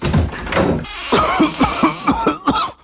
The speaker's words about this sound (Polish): Nie chowaj się, niech kaszel się schowa.